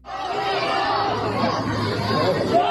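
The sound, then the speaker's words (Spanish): A dense street protest crowd in Sichuan, China, of many overlapping voices, raised and agitated, shouting that they want freedom, forms a loud, continuous wall of chatter with no pauses, all-enveloping for the whole stretch. “Pues una protesta. Esta es en Sichuan. Lo que sucede es una escena en la calle en la que están gritando queremos eh, libertad.”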